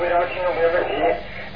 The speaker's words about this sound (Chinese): 哎，老妈妈，你把收音机关轻一点，有回音啊。